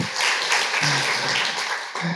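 Steady, dense audience applause fills the whole moment, a loud wash of many hands clapping at once, with a brief voice or two faintly surfacing underneath.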